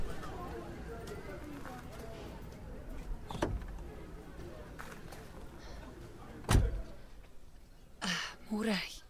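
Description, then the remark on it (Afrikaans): Someone hurriedly climbs into a car parked behind a shop: rustling movement, then a loud door slam, with a low engine-like rumble underneath and a brief vocal sound at the end. “Klim in die kar. Gou.”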